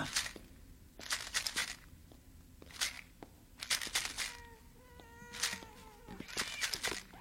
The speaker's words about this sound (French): pas toi, c'était un chat.